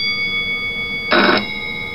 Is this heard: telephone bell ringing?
yes